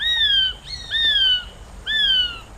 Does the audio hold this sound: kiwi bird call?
yes